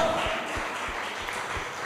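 Sustained crowd clapping in praise of the Lord during a worship service fills the whole stretch, a dense, even wash of many hands with a few stronger beats underneath, steady in loudness throughout.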